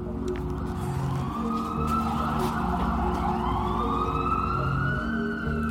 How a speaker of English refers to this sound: It seems like Every hour, you can hear ambulances whizzing away in the distance. New York looks eerily quiet, something I've never seen in my whole life living here.